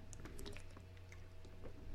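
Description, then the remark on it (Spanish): Someone takes a quick sip of water from a bottle, with soft wet squishy sounds and small plastic clicks, fairly quiet over a low steady hum, no talking. “lo voy a tomar un buche de agua, permítanme, disculpen si se escucha ahí la, botella, pero va 3, 2, 1.”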